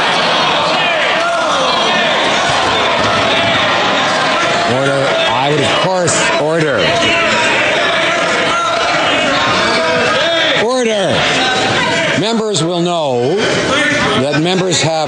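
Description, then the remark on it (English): Members of the House in parliament shouting and chattering at once during questions and answers, a dense, continuous roar of overlapping voices with louder individual yells rising above it again and again for the whole stretch. “Members know that there's much too much talk during the House, during particularly during answers.”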